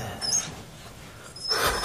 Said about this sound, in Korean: 깊은 밤, 잠에서 깬 건 낑낑거리며 우는 강아지 소리 때문이었다. 아, 이게 무슨 소리지? 강아지 소린데.